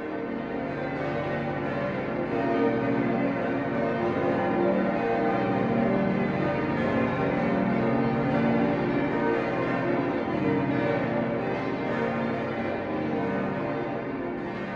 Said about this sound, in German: Mit insgesamt 20 Glocken und einem Gesamtgewicht von 26 Tonnen erschallt in Würzburg Bayerns mächtigstes Kirchengeläut.